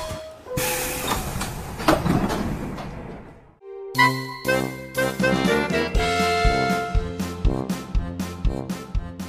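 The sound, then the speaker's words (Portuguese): A short train-passing effect, a loud rushing hiss with a whistle tone, sweeps by for a few seconds, then drops out and gives way to upbeat, rhythmic music. “Exato, bora pegar o expressinho porque a Frauen Bundesliga tá começando a pegar fogo.”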